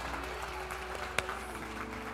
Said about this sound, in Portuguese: E quem está feliz aí, dá um glória a Deus bem alto e aplauda Jesus.